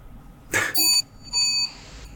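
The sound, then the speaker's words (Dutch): An alarm clock rings in the background in two bright, tonal bursts, the second following a brief pause after the first, with a sharp click at the start; no one speaks over it. “Nou, de klok gaat af in de achtergrond.”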